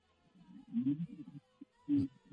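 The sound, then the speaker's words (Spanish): Muffled, garbled bursts of a distorted voice breaking up over a bad phone line, with short warbling fragments and two louder crackly swells, no clear words coming through. “Ok, vamos a, vamos a solucionar este problema con la línea telefónica”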